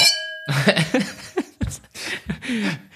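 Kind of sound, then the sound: household object, glasses clinking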